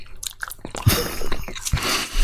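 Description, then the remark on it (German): A bite into a crispy chocolate with a nougat filling, followed by a couple of seconds of crunchy, moist chewing, loud with no talking. “jetzt können sie mal langsam gegessen werden. Gucken, ob sie ja, gefüllt sind.”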